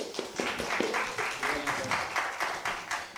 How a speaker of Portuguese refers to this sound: Por favor, palmas para eles, pessoal.